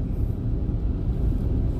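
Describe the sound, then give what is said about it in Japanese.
A steady, low rumble of a car moving slowly at 30 km/h on a curving rural mountain road that looks icy, with engine and road noise holding at an even level throughout and no voices or other sounds. “この辺ちょっと道路が凍ってそう怖いちょっと慎重に慎重にハンドルを切っていきますちょっとスピードを落としてほら30キロ今現在30キロで走行しています”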